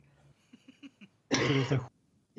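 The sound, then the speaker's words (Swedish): A series of short, soft throat-clearing grunts, then a loud, harsh cough burst, with another cough starting right at the end. “Ett ögonblick, jag måste bara hosta klart.”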